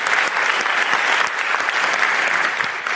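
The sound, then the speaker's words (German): An audience claps steadily to welcome guest Mitu Sanyal to a panel discussion, a dense wash of many hands with sharp individual claps popping out, sustained and fairly loud throughout with no voices on top. “Und um eine ähm, Metaebene zu dem Ganzen hinzuzufügen, haben wir uns die wunderbare Mitu Sanyal eingeladen. Applaus”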